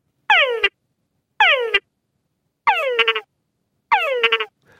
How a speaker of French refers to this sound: Le nom de ces grenouilles, Tungara, est une onomatopée qui dérive des appels complexes des mâles. Toon correspond au gémissement initial et Gara correspond au deux tchak.